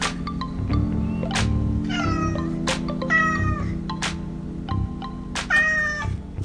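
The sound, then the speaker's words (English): A cat meows repeatedly in drawn-out, wavering cries, fairly loud, with short pauses between calls and a steady low hum underneath. “Okay, kitty.”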